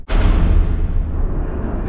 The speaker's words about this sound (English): a long, straight chasm stretched across the ground. Snow and ice tumbled inward, and a blast of scalding steam erupted from the newly revealed chamber underneath the surface of the island.